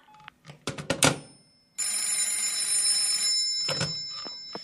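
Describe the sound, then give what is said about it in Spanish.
A telephone bell rings in a sustained, bright metallic burst, preceded by a few sharp clicks and clatters, with more handling clicks afterward. No one speaks. “Ay, por fin, que me están llamando, señorita, y no consigo hablar.”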